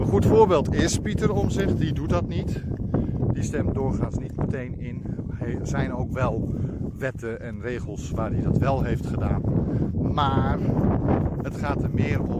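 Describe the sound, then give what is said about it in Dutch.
A man talks steadily while low, rumbling wind buffets the microphone throughout, a constant muffled roar sitting under his voice. “Er staat een beetje wind. Mijn excuses voor de ruis, voor de luisteraars.”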